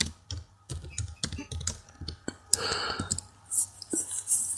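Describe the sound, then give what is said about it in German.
Rapid clicking of keys on a computer keyboard as a search for a metal poker for a fireplace is typed, an irregular burst of typing that pauses briefly, with a few sharper, brighter clicks near the end. “Warte, ich gebe mal ein Metallstocher-Ding im Kamin.”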